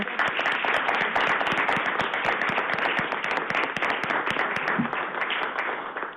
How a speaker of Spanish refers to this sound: Yo creo que esto se merece un aplauso.